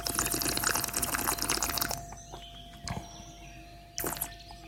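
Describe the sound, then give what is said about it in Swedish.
Someone slurps a drink while tasting it: a steady, wet, hissing rush of sucked liquid for about two seconds, then near-quiet broken by two short, sharp slurps. No voices. “Ja, du sörplar.”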